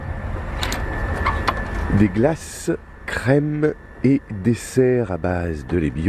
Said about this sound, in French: Là, ce qu'on entend, c'est le bruit des frigidaires. Oui, c'est ça, c'est le bruit des frigidaires et de la vitrine réfrigérée.